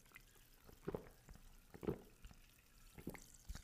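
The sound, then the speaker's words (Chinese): Sparkling water being poured for drinking a few toasts, with soft liquid splashing and a series of faint crackling fizz bursts and drips scattered across a few seconds; no one speaks. “那么开始之前呢，不要让我气泡水这边干等哦，跟大家来用气泡水，跟大家来干几杯哟，干几杯哟。”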